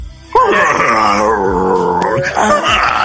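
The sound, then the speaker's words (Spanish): A person vocally imitates a wounded lion's roar: one long, loud, drawn-out moaning wail that wavers in pitch for about three seconds, with a brief rougher burst near the end. “Porque el, roar así, digo, no, no me salen bien la imitación de un león.”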